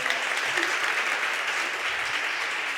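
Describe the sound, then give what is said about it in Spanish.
Steady audience applause, a dense wash of many hands clapping at an even, sustained loudness throughout, with no voices standing out. “No se aplaudan, más bien.”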